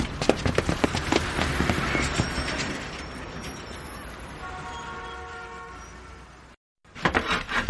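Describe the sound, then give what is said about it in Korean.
A bus rumbles in to the stop, with a steady engine roar, clattering, and a thin whining squeal of brakes as it slows, then a brief drop to silence before the noise resumes. “어, 어, 야, 버스 온다, 어, 버스.”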